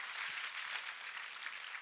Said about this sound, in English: We have, yes, let's applaud for you all. Let's applaud for you all.